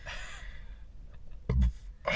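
A single sneeze, preceded by a breathy inhale, bursts out sharply and loudly, followed by a brief noisy exhale.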